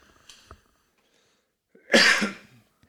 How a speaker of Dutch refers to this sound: ik moet even hoesten als jij even doorpraat.